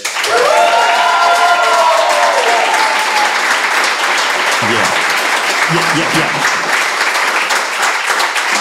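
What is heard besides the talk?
audience applauding and cheering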